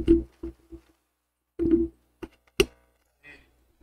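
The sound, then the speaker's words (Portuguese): Irregular bursts of buzzy electrical interference and crackle cut in and out, with a sharp pop near the end, as a microphone cable is touched. Nobody speaks. “Deu um chiado aí, um é ruído. Aquele relou no, no fio.”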